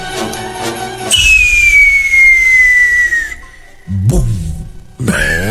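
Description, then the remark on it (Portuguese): A firework rocket shrieks upward with a long, high descending whistle lasting about two seconds, followed by sharp bursts and crackling blasts, then another whistling rocket starting at the end. “Você é bom pra soltar, hein? Foguete.”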